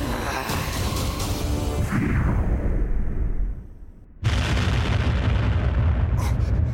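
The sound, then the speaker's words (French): Loud, rumbling sci-fi battle effects as a locked laser turret fires and a starship is hit: a roaring blast swells and fades away, then after a brief lull a sudden massive explosion erupts and keeps roaring, with sharp zaps flickering near the end. “À tous les chasseurs, le Carvos Down a été touché.”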